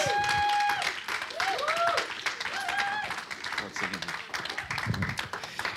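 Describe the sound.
A crowd applauds steadily with dense, overlapping clapping, while whistles and cheering voices ring out above it, loud and close throughout.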